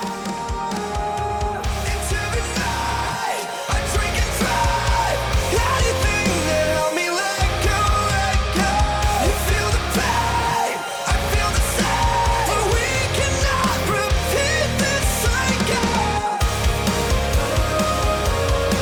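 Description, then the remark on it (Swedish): A loud, dense emo band track plays throughout, with screamed vocals over driving guitars and drums. The full band cuts out for brief moments a few times before crashing back in. “Ja, det lät ju svinbra ju. Ja, vad Han, vilken, grom, äh, grom, vilken grym eh, sångare.”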